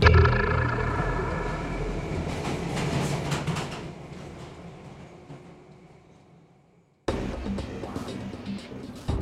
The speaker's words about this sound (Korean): 구로역에서 지하철이 멈춘다. 학생들이 내리기 시작한다. 이정호는 여기서 내리지 않고 그러자 지하철은 곧바로 출발한다.